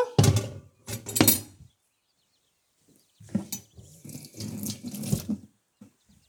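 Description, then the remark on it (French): Dishes left from cooking broccoli being washed under a running kitchen tap, with bursts of splashing water and occasional clinks, a pause of near silence in between, with no talking. “Je nettoie un petit peu tout ce qui me reste à nettoyer, puisqu'avec mon brocoli, forcément, j'ai fait un petit peu de vaisselle.”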